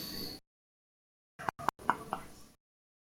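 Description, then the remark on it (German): Sharp pops from a swing-top beer bottle being opened, two quick bursts followed by a few softer clicks and a brief hiss, with no talking. The bottle holds an amber-red beer from Wuppertal with 5.6% alcohol. “Es ist aus Wuppertal und es hat 5,6% und es ist ha, in einer Plopschflasche.”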